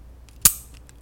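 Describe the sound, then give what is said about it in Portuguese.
A single crisp click of a four-color ballpoint pen mechanism snapping open, with a few faint plastic ticks around it and no one talking. “Isso aqui é o barulho de uma caneta, de uma caneta abrindo. É uma caneta de quatro cores.”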